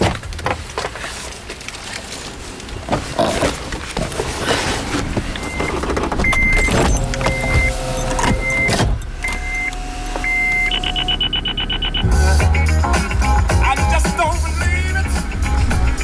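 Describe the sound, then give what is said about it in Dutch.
Steady interior rumble of a moving car, with engine drone and road noise throughout, a series of short repeated electronic beeps partway through, and louder low rumbling toward the end, as the driver avoids a traffic jam. “Of ik zit met mijn recorder naast Betty in de auto.”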